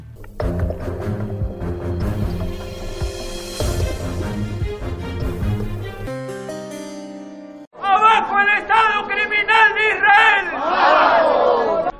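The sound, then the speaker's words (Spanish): A loud crowd of dozens of people in Peru, protesting in solidarity with Palestine outside the Foreign Ministry, chants and shouts together in a dense, rhythmic roar, following a few seconds of music with sustained tones at the start. “Decenas de ciudadanos de Perú y de otros países decidieron salir a protestar ante la Cancillería”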